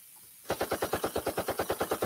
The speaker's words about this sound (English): Can you hear the gunshot?